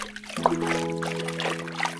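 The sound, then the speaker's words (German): Water sloshes and trickles continuously as a hand swirls soapy water around in a bath to make foam, moderately loud, with a steady low hum running underneath for most of the time. “Der Schaum entsteht dann nur, wenn du die Seife ins Wasser tust und anschließend mit der Hand das Wasser bewegst.”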